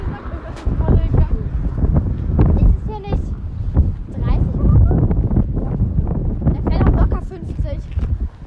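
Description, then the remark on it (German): Steady, loud wind buffeting the microphone throughout, a low rumbling roar with gusty swells, while people talk over it. “Sorry für Windgeräusche.”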